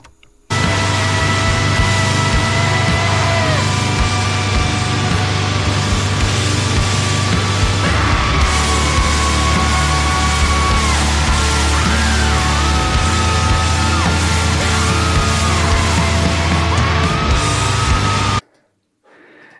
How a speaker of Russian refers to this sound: Вот это крик года. И как бы, и ничего лучше, никто лучше не кричал так, как, как кричали в этой песне.